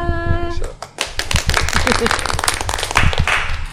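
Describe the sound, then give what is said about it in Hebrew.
A brief steady tone gives way to a burst of loud, rapid hand clapping, dense and overlapping like several people applauding, lasting about three seconds before cutting off. “אחר כך אכפיל את המחיאות כפיים.”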